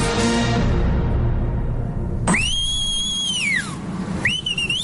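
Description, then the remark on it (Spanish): A person whistles loudly to call someone: a piercing whistle rises, holds steady, then slides down, followed moments later by a second whistle starting up, both over a rumbling background after a burst of broad noise. “Es eh, ¿por qué me llaman con un silbido?”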